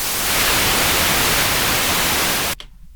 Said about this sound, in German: Und äh, wir hören vom eigentlichen Audiomaterial nur noch das hier. Ja, es ist also nichts weiter als weißes Rauschen, was man hier noch hört.